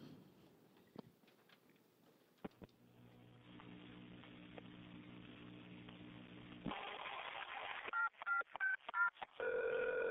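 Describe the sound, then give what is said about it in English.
A 911 dispatcher returns a 911 hang-up call: a few handset clicks, a steady line tone, then a quick run of short dialing beeps followed by a ringing tone, all fairly loud with no talking. “What follows is an actual 911 call, where the dispatcher returns a 911 hangup.”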